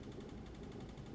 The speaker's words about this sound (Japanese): えー、エアコンの音がカタカタカタカタなっているのが気になるかもしれません。エアコンの真下で喋っています。聞こえますかこれはね、去年うちの次男がですね、このエアコンの中にですね、鉛筆を突っ込んで、羽みたいなところがね、割れたんですよね。それからこんな音がしておりますが